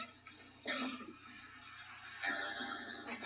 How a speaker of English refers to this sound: Yeah, she burped. What was that noise? Well, I think we just heard the world's first electronic burp.